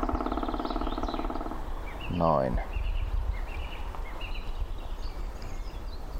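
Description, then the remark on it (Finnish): A man speaks briefly, then a woodpecker drums on a dead standing tree in a narrow forest strip in Nastola, Lahti, on a sunny seven-degree day, in a short, rapid burst of taps lasting under a second, with faint birdsong chirping in the background throughout. “Kuunnelkaa, tässä on huomattavasti pitempi rummutus.”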